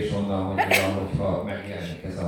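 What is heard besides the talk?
sneeze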